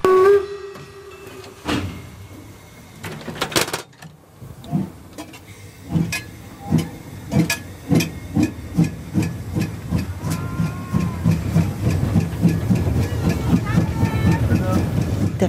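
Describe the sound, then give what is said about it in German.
A steam locomotive in the Weißeritz valley, Germany, hisses loudly, lets off a burst of steam, then pulls away with rhythmic chuffs that quicken steadily as it rolls past. “Und es wird ein Weihnachtsmarkt der besonderen Art sein, denn sie fahren dampfend durch das Weißeritztal.”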